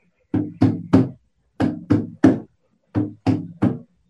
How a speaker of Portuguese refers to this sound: Então, o som de um tambor